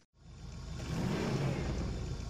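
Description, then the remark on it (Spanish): A DeLorean car engine revs up and holds a steady, loud roar, its low rumble building over a couple of seconds with no voices present. “Ya escuchan los motores de este auto que se desplaza por la órbita del tiempo”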